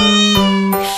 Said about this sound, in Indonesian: Kalian dengar, itu suara kucing